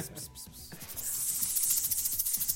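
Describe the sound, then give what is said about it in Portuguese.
A voice imitates a snake with a long, steady hiss that begins a moment in and carries on to the end, fairly loud, with low murmuring underneath. “Como faz uma cobrinha.”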